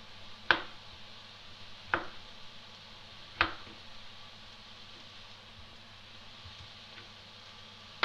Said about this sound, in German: Dann die schneide ich einfach so in quer, quer durch, in dreimal durchschneiden, ungefähr eine Tomate. 1, 2. Die habe ich jetzt nur zweimal geschnitten, weil es ja nicht so groß ist.